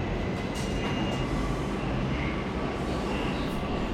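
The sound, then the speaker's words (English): A subway train rumbles along steadily, a dense, loud roar of rail noise and low rumble that stays constant throughout, with no voices over it. “Um, I think the nicest thing I see in the train is somebody like coming on the train promoting their work.”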